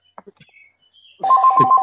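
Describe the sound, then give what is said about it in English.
A landline telephone next to a laptop starts ringing loudly after a second of quiet, its bright electronic trill pulsing in steady bursts with a strong sustained tone. A few faint soft sounds precede it. “Sorry, I got a phone right here.”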